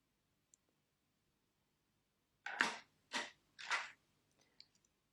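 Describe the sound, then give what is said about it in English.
Strong blue watercolor paint with some water is poured into a small container in three short, splashy bursts, followed by a few faint clicks, with no talking. “so I'm starting off with pouring some watercolor into the small container I'm using a strong blue and some water of course”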